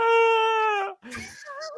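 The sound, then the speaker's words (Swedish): A voice imitates a child sobbing: one long, high, steady wail, a sudden catch of breath, then shorter broken, hiccuping sobs, fairly loud. “Då sitter ett barn och bara, bara gråter. Alltså riktigt så här”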